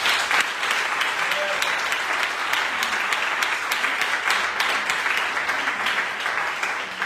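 An audience applauds a woman who has been called forward, many hands clapping in a dense, continuous patter that holds at an even, fairly loud level throughout without pause.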